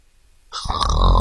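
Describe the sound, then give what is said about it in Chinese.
A sleeping hippo's deep, rumbling snore swells in after a half-second of near silence, loud and throaty with a rough, raspy rattle as it builds and holds. “可是睡觉的河马只管睡它的觉，打它的呼噜。”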